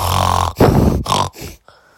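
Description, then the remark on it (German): A voice imitates its own loud, snorting breathing when asleep with hay fever: several rough, gravelly snorts and wheezy inhales in quick succession, forceful, trailing off into a faint breath at the end. “Immer wenn ich schlafe, ich, hör, ich schwöre, ich es hört sich so an.”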